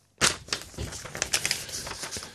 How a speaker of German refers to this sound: Also dieses Blättern in den Opferakten, finde ich, geht mir immer tierisch an die Nieren.